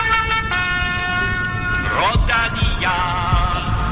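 The well-known musical horn tune of a cycling race's lead car, a loud tune of several sustained, buzzy notes that step and slide in pitch, sounding over a constant rumble of background noise.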